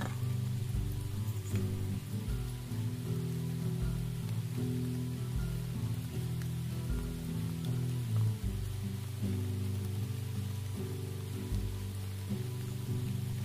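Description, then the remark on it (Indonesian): Steady rain hisses continuously throughout, a soft even wash with no breaks, layered over a low sustained droning hum. No one speaks. “Hujan tak tambah membesar.”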